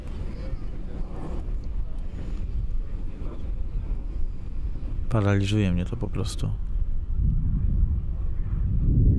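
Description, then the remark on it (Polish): Steady low rumble of an airplane passing over the sea, with wind gusting against the microphone throughout, while a man speaks quietly over the noise. “Teraz jakiś samolot przelatuje nad morzem, wieje wiatr. Pewnie to bardzo słychać.”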